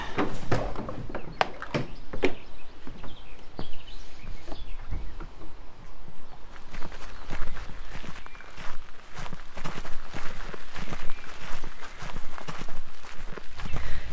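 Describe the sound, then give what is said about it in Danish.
Steady footsteps walk outdoors toward a view over Mossø lake in Denmark, each step a crisp crunch in a regular rhythm, moderately loud, with a faint bird or two in the background. “Ja, men skal vi gå ud og øh, slutte af med den her flotte udsigt, der er herude, øh, ud over Mossø?”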